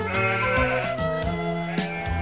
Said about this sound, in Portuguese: Mais uma ovelha?